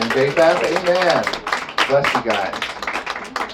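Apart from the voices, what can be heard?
audience hand clapping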